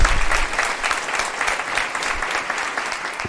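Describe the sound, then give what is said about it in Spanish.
A church audience breaks into sustained applause for fellow members born in Holland, a dense, steady wash of many hands clapping at a fairly loud, even level with no speech over it. “Un fuerte aplauso para todos nuestros hermanos.”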